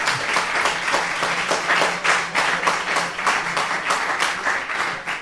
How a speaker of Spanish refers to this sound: Con un fuerte aplauso del público mientras una pequeña entrevista.